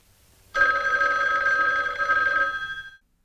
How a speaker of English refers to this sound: telephone rings.